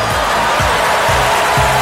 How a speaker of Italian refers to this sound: salutiamo tutti i ragazzi di Radio Experience, come sempre gli dedichiamo un applauso.